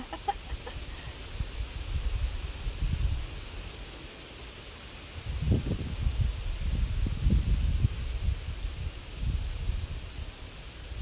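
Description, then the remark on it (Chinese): Wind rushes through tree leaves from all directions in a steady, airy rustle that swells into stronger gusts partway through, with a low rumbling undertone and no voices. Recorded on a summer weekday while walking a dog in a large, empty green area like a small forest. “然后因为是个夏天嘛，是个工作日的夏天，然后我站在那里，我就听到四面八方风吹过树叶的声音。我录了一段啊， 听一下。”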